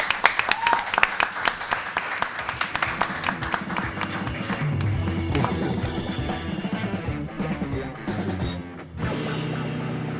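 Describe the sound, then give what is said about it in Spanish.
A loud burst of applause from a small group for a guest on a radio programme, dense rapid clapping for several seconds, which gives way to music swelling underneath and carrying on after the clapping fades. “Aplauso grande para Saki.”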